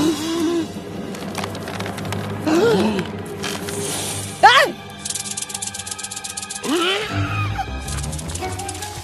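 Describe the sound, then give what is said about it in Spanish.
A wooden walking staff, also used as bear repellent, is thrown onto the ground with a sharp, splintering crack, one loud knock standing out amid voices and other scattered clatter. “Es mi bastón de caminar y el repelente de osos. Lanzarlo al suelo.”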